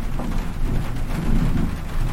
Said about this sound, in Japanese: めちゃくちゃもうすごいね、雷暴れ回ってますね。雷ってすごいよねなんか自然の迫力を感じますよね